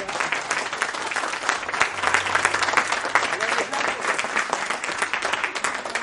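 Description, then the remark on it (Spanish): Sustained applause from a group of students, dense and steady clapping filling the whole six seconds at a fairly loud level, with a few voices mixed faintly into the noise. “Oye, un aplauso grande para ustedes, pero grande.”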